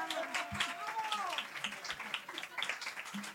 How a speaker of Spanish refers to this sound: a todos los que estáis aquí, un aplauso para vosotros también. Gracias.